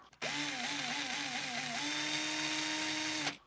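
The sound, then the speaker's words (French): A power drill whirs steadily for about three seconds, its motor pitch wobbling briefly as it bites in before settling to a constant, loud high whine that cuts off abruptly. “Dis à ton copain d'arrêter de me faire des trous et tu veux faire des trous à qui Un crayon.”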